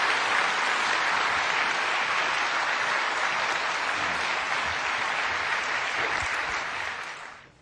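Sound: audience applauding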